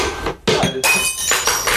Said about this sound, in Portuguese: E eu quebrei um copo agora.